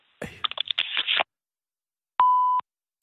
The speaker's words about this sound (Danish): Du er velkommen til at lægge en besked efter klartonen, oh, eller sende ja. en ah. sms, så vender jeg tilbage så hurtigt jeg kan.